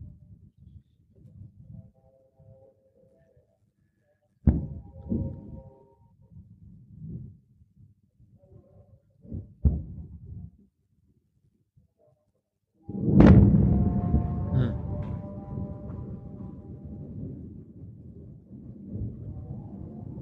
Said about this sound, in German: Wow, some big flashes going on, big explosions. Wow.